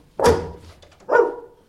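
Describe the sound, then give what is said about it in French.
A dog barks twice, loud, with a short pause between the two sharp barks and no talking. “bon chien, te voici revenu.”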